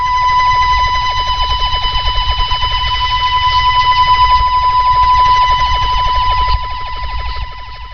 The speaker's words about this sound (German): Dabei wurde aus Hirjan zeitweise auch ein Sinuston abgestrahlt und Kenner konnten sich darüber amüsieren, wie sich dieser Sinuston mit einem der klassischen Wobbelstörsender mischte, die vorher schon länger nicht mehr zu hören waren.